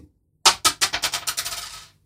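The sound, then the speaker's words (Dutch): A coin tossed for heads or tails lands on a hard surface and bounces in a quickening series of bright metallic clinks, ringing clear before settling into a final rattling spin. “Wat wil je? Kop of munt?”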